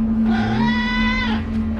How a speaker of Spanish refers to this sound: Ahí está el gato diciendo bueno, mamá. Pero con pues, hambre.